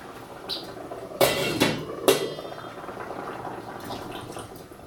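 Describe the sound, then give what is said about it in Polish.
Cold water, a little less than a glassful, splashes onto meat roasting in a hot, bubbling stew pot in a few sharp bursts around the one- and two-second marks, followed by a steady low simmering hiss and faint bubbling. No one speaks. “Podlewam zawsze zimną wodą, mniej więcej tak niepełną szklanką. Najpierw leciutko podlewam. Jak kiedy słyszę, że zaczyna bulgotać, Dolewam resztę.”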